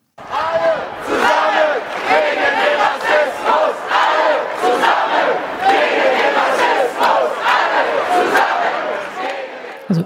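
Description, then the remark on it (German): A large crowd at a demonstration against racism chants together in loud, rhythmic unison, many voices rising and falling in repeated shouted phrases, continuous throughout. “Und wir ähm, starten vielleicht noch mal mit, mit einem Ton von einer Demonstration zu dem Thema Rassismus, über das wir jetzt schon, das wir jetzt schon häufiger angetippt haben.”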